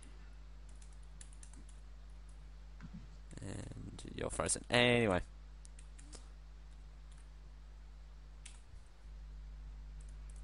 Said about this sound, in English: And I'm typing Google.